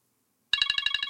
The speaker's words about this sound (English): That's our timer.